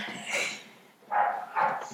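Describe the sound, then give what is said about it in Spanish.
Dogs barking in three short bursts, one early and two close together near the end, moderately loud, with no talking over them. “Órale con los perros.”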